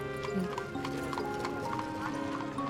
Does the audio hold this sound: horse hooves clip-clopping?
yes